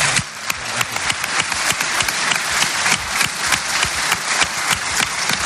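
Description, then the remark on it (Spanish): A crowd claps steadily for don Vicente for several seconds, a dense, continuous patter of many hands at a fairly loud, even level with no voices over it. “Muchas gracias, don Vicente. Un aplauso para.”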